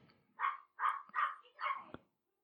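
A dog barks four times in a quick, fairly even series, each bark short and mid-pitched, with no voices over it.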